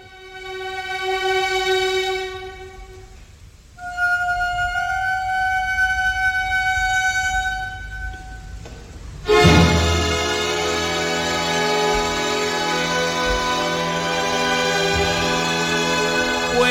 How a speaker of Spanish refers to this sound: Lo está preparando. Este es... ¿Lo podemos poner otra vez? ¿Eh? Lo hemos preparado, ha hecho tirí, tiri... y ha dado el acorde.